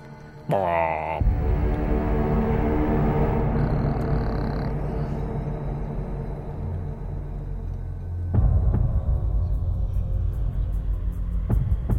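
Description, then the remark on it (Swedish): The main theme of a 2006 film remake's soundtrack, somewhat electronic with modern sounds, plays loud: deep, sustained droning chords with a heavy low rumble swelling beneath, building and shifting midway, with no one speaking. “Det här är liksom Ja, huvudtemat tycker just jag.”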